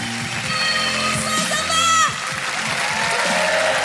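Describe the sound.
An audience at a Montreux Comedy show claps and cheers to welcome the next comedian, a steady, dense roar that holds for several seconds, with a few shrill whistles rising through the noise midway and scattered voices shouting.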